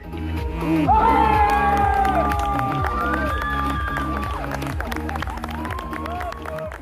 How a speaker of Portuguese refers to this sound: torneio de Roundnet tem torcida animada, tem emoção, tem vibração.